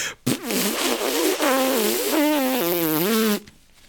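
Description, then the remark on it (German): A loud, honking nose blow lasting about three seconds, its buzzy, trumpet-like tone wobbling up and down in pitch before cutting off abruptly. “Ich muss mal eben Nase putzen.”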